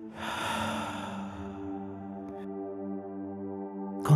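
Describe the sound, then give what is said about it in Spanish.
A slow, deep breath is drawn in and let out slowly during a guided breathing exercise, loud, with the airy sound fading over a couple of seconds while a soft, steady musical drone continues underneath. “Otra vez, inhalo. Exhalo despacio.”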